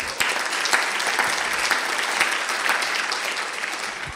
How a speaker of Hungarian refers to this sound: Egy nagy tapsot adjunk Jézusnak ezért.